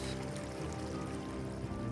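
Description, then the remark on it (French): River water trickles and babbles steadily, a soft continuous flow with no pauses, sitting over a low, sustained tonal hum in the background. “Voyant une rivière, Milo alla étancher sa soif.”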